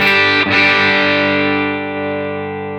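A heavily distorted electric guitar chord played through a Ron Ellis humbucker pickup, struck once with a sharp attack and left ringing loud, its thick overdriven sustain slowly fading. No voices.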